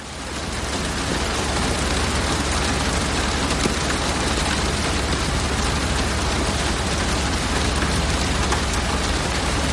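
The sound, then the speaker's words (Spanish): Heavy rain pours down in a steady, dense hiss that stays loud and unbroken throughout, with no voices or other distinct sounds. “Llueve con fuerza.”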